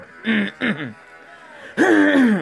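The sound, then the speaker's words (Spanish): A few short, throaty bursts: two quick rasping throat clears, a brief pause, then a longer, stronger clearing of the throat. “Hoy un poco, un poco de tos”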